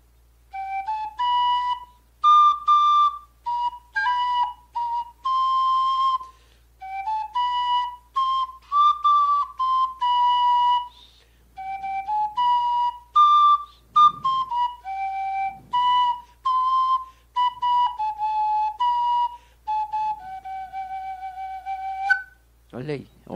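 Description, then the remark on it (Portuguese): A clay flute, one of the pieces of the Som do Barro project, plays a breathy, whistling melody of short and sustained notes that step up and down in pitch, phrase after phrase, fairly loud and without any talking. “Sai som mesmo ou é só ilusão? Cara, e a flauta, eu procurei a flauta”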